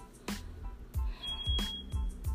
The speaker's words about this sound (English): Um all the time there's this loud beep from the smoke alarm right now, from the smoke detector. Um it's like insane. And it's happened a lot, but um this time it's like super loud and it's been going for hours.